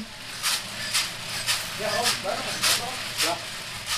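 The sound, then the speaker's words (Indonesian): A simple coffee roasting machine heated by a gas stove hisses in short, regular bursts about twice a second, steady, with faint voices murmuring underneath partway through. “Itu suara alat roasting kopi.”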